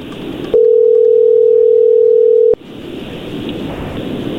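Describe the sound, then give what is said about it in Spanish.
A single steady, mid-pitched ringback tone of an outgoing phone call sounds loudly for about two seconds, then cuts off, leaving a hissy, rushing line noise with no one speaking. “Ahí está la llamada, no haga ruido.”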